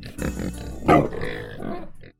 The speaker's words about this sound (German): das Infotier der Woche, mit dem wir hier natürlich auch immer hinten, ist diese Woche das Schwein.